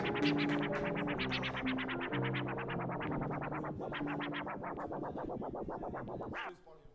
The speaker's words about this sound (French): DJ Talking, ce genre de scratch, ce genre de swag, tu connais.